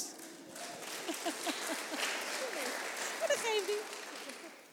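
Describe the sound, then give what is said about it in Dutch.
A crowd applauding women presenters introduced to speak about taking charge of one's career, a steady wash of clapping that holds for several seconds, with scattered voices calling out and chattering over it. “Applaus.”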